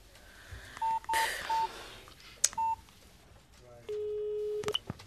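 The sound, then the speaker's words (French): A short run of mobile phone keypad dialing tones as someone calls back from their mobile phone, several brief beeps in an uneven sequence, followed by a longer steady tone, clear with faint background noise. “Je te rappelle de mon portable.”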